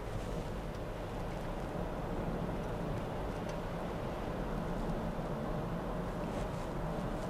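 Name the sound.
car interior road noise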